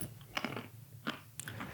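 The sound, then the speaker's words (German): Wet smacking and crunching of someone chewing food, a few sharp mouth clicks in irregular bursts over a low background hum, with no talking. “Nee, du schmatzt.”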